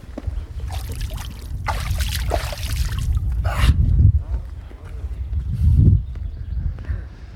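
Water splashes in several irregular bursts in a shallow pool about 20 cm deep, one sharper slosh standing out midway, over a steady low outdoor rumble.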